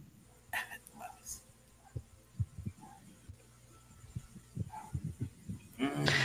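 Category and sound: animal, dogs barking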